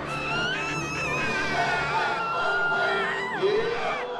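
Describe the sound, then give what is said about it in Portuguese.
Many audience members scream and wail at once during a priest's exorcism ritual as people thrash about, a dense, continuous clamor, loud, with rising and falling cries layered over a crowd roar throughout. “Gritos desesperados.”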